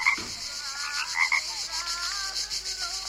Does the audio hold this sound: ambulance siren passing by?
no